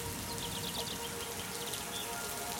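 Steady rain patters evenly across the whole stretch, a soft continuous hiss of drops, with a few faint, high bird chirps drifting in the background.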